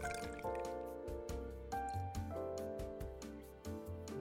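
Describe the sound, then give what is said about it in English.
Beer glugs and splashes steadily as it is poured from a tallboy can into a St. Peter Sullivan glass, a continuous gurgling pour with a rising, ringing fill tone over several seconds. “Nice pour here. Tallboy cans.”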